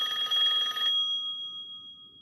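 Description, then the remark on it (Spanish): A telephone bell rings at a chicken restaurant in a dense, rattling burst for about a second, then stops, leaving a steady high tone and faint low hum behind. Fairly loud, no voices. “qué, rara llamada recibimos hoy, ¿no?”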